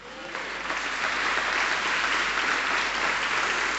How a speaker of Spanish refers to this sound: ¿Le pueden aplaudir al Señor?